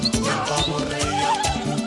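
A donkey brays loudly, its harsh, wavering hee-haw cries repeating in quick succession for a couple of seconds.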